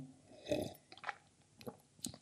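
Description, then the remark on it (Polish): Someone takes a sip of a drink, a short slurp followed by a few soft, wet swallowing and mouth sounds spread over a couple of seconds, with no talking. “I tym, kurwa, mać y, pozytywnym akcentem, jeszcze sobie łyka wezmę,”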